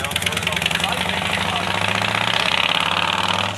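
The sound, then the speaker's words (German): A motorcycle engine runs steadily in a village, its rough, rapid idling chug holding at a constant loud level with a buzzing, rattling texture throughout. “Hier ist ein Krach in dem Dorf. Unglaublich. Das ist wieder der Motorradfahrer.”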